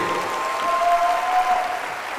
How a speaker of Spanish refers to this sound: Dale un fuerte aplauso, por favor, a esta mujer valiente.